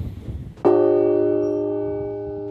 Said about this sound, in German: da pfeift der Wind noch ein bisschen stärker und wir stehen jetzt vor der Kunigundenglocke, die vermutlich, man kann sie nicht ganz genau datieren, äh, um etwa 1200 gegossen wurde. Sie hat einen sehr charakteristischen, archaischen Klang